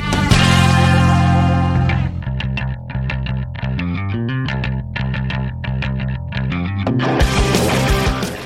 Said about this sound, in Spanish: Estamos escuchando …, del nuevo disco de …